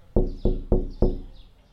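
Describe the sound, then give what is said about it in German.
Four firm knocks on a car window, evenly spaced, each a sharp thud with a short ring, with faint high chirping in the background. “Ja, ich äh, bewege mich zum Auto natürlich und klopfe an die Scheibe, sobald ich ankomme.”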